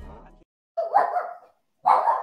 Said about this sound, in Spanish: ese perro lo sabe. Sorry, es, es mi perra.